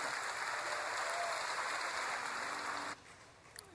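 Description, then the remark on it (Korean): An audience breaks into steady, dense applause for the Lord, a broad wash of clapping that holds for about three seconds before cutting off abruptly, leaving a quieter room tone with a small click. “주님께 큰 박수 올려 돌리십시다.”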